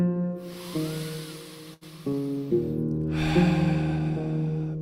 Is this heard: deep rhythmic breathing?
yes